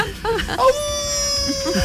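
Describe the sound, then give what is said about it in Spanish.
A person imitates a wolf howl: a few short yelping sounds, then a thin, steady, fairly high-pitched wail held for about a second, sounding more like a whimpering puppy than a wolf. “a ver, da un aullido.”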